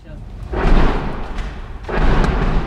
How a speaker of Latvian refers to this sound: Dienā, kad apmeklēju Ukrāņu karavīru Solidarā, frontes līnija atrodas pavisam tuvu šai apdzīvotajai vietai. Ik pa brīdim dzirdam tuvāk vai tālāk šāvienu trokšņi.